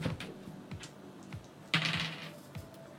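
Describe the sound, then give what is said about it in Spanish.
A pair of dice clatter across a hard tabletop, a quick uneven run of sharp clicks and taps with one louder knock partway through before settling, landing on double three. “Ya, entonces tiráis dos dados.”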